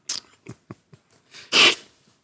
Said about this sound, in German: Ja. Schniefe dich ruhig aus